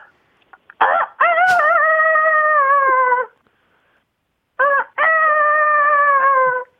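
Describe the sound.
A person calling in to a radio contest over the phone imitates a rooster crowing twice, each a loud, drawn-out vocal cock-a-doodle-doo with a short rising start and a long wavering tail, separated by a brief pause.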